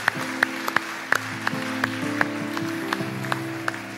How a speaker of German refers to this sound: Und geben jenen äh, sechs Personen hier vorne einen Applaus. Wir, wir feiern euren Mut.